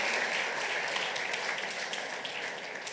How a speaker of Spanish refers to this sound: ¿Por qué no le damos un fuerte aplauso a estos jóvenes? Bienvenidos, bienvenidas.